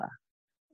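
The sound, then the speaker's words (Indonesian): A single short frog croak, fairly loud, followed by silence and a faint, brief trailing croak at the end. “terus lo jadi parno nggak sama bunyi kodok iyalah parah parah gila ih Padahal kan itu kadang enak banget ya.”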